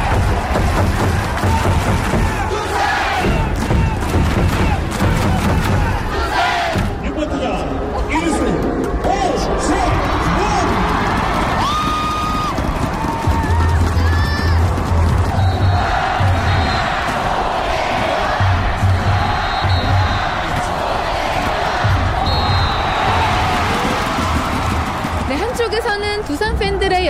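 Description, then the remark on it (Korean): A dense baseball stadium crowd of NC Dinos fans roars and chants continuously at a season-opening game, with rhythmic cheering, scattered shouts and bursts of amplified music or drumming riding over the steady din. “응원이 펼쳐지고 있고 반대쪽에서는 NC 팬들의 응원 열기도 더해지고 있습니다.”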